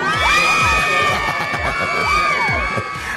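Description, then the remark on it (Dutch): A loud group of women, guests in the Solid Gold Radio studio, cheering, whooping and shouting together, sustained high voices layered over rhythmic thumps, energetic throughout. “Hoor je dat? Hoor je dat? Nou, gezellig. Laat even, laat even horen dat jullie er zijn dan, dames.”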